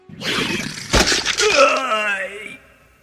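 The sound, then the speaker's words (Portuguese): A crackling, splintering rush builds into a sharp shattering burst, then gives way to a wavering, ringing tone that fades out, like a magical barrier cracking apart. “A barreira se rompe, vocês escutam um barulho dela se rompendo.”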